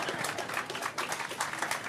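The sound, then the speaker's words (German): An audience claps together, a steady crackling wash of many hands with no pauses. It's fairly soft and carries on evenly without any voices over it. “Jetzt könnt ihr klatschen.”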